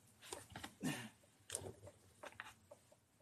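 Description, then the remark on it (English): Water drips from a tap in small, irregular taps and splashes, fairly quiet, with soft background noise and no talking. “So you hear that water dripping, bro? It's so I don't freeze.”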